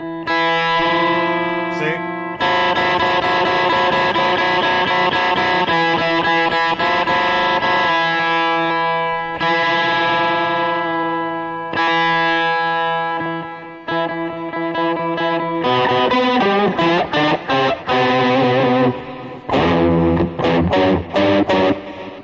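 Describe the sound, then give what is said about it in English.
An effects-heavy electric guitar rings out sustained, distorted chords through a pitch pedal; the player takes his foot off the pedal and the tuning slowly drifts sharp, then breaks into choppier strummed stabs toward the end. “Watch, I'll take my foot off and you'll hear it start to go sharp.”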